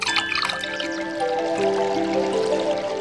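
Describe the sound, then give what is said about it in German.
A drink is poured into a glass, a steady liquid stream whose resonant pitch rises gradually as the glass fills, with no voices over it. “Und dann darf man das auch feiern, dann darf man sich auch äh, etwas gönnen, ein großes Glas Radler oder einen tollen Wein.”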